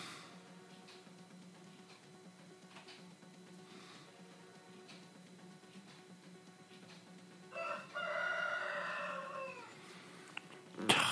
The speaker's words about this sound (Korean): 거의 새벽에 닭이 웁니다.